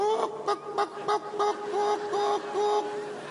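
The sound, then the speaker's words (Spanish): A voice imitates a hen clucking, producing a rapid series of short, nasal, honk-like bursts in an uneven rhythm, fairly loud, with no other talk during it. “Y una gallina dijo,”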